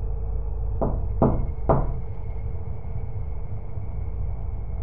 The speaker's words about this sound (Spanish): A los 15 minutos aproximadamente, volvieron a tocar la puerta con tres golpes contundentes y firmes.